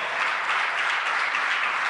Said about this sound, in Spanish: Dios, déle una ofrenda de palmas, Señor.